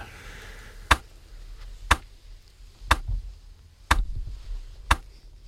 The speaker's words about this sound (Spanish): Lo que hace es marcar el tempo, mm. marcar la pulsación, lo puedes variar, hacerlo más rápido, más lento y esto es lo primero que George Brake eh, eh, pone en un cuadro. Fíjate el metrónomo como suena.